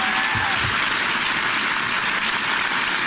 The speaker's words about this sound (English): those of you watching at home may wonder why this is being applauded.